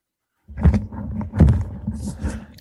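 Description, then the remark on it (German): A deep, rough roaring growl rumbles out in several swelling bursts over about two seconds, loud, like a large bear snarling with no talk over it. “Du musst aufpassen, da ist, da ist ein Bär in deinem Zimmer.”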